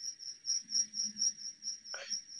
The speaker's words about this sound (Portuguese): Eu prefiro o grilo do que as marteladas, cara. O grilo tem uma é, sonoridade.